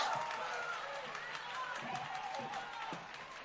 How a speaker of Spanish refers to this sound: Un aplauso ah, enorme para todos ellos.